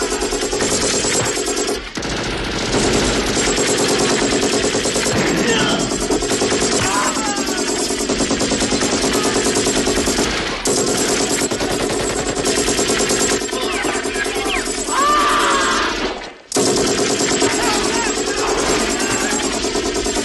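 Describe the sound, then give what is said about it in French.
Loud, relentless gunfire in a film action scene, dense automatic bursts and shots layered almost continuously, with voices mixed in and brief pauses before the barrage resumes. “je te propose justement qu'on écoute cette séquence d'action, le premier acte, où c'est seulement le bruit des armes à feu.”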